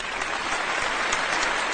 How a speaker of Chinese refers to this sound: 这一点来讲呢，咱们是值得给持续的十秒掌声的。